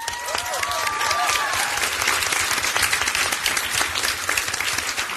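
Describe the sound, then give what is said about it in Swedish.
Warm audience applause for punk legend Johan Johansson as he is called up on stage fills the whole stretch, a dense steady clatter of many hands clapping at once, with a few faint whistles rising above it near the start. “Ge Johan Johansson en varm applåd.”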